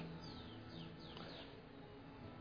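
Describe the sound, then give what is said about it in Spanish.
Birds sing outdoors at sunrise on a cold morning in a few quick, descending chirps, fairly faint and spaced apart, over a steady low background hum with no one talking. “por este frío, por las aves que cantan.”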